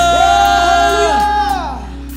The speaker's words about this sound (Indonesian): Berikan kepada Tuhan Sorakan haleluya